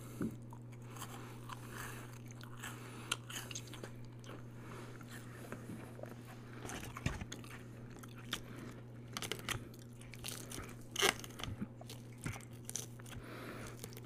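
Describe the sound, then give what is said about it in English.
Crunchy chewing of a salad with croutons, hard-boiled egg and creamy ranch dressing from a local restaurant, irregular bites and crackles continuing for about fourteen seconds over a low, steady background hum, with no talking. “I think it's the hard boiled egg, but I really, really like the, the crunch of the croutons.”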